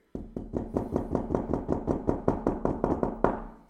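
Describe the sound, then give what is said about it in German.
A quick, steady run of about sixteen sharp knocks of shot glasses being rapped on a tabletop before drinking, fairly loud with no talking, finishing on one slightly harder knock. “Na, ne, dann klopfen wir.”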